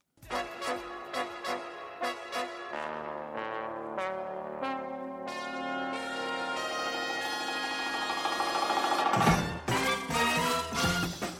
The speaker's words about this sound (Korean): 아우 이제 종쳤네.